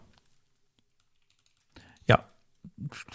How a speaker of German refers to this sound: Ich tippe jetzt mal was. Hörst du das?